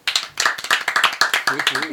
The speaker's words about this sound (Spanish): Un aplauso.